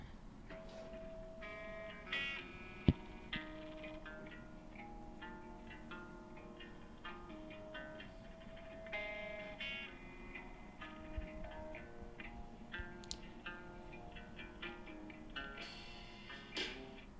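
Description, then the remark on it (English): A moody alternative rock song plays on its own at a low level, with reverb-soaked, low-pitched guitar riffs layered over a steady backing and occasional sharp accents. “that's a little bit of a song …, and like I said, we can hear that same guitar style, the low riffs”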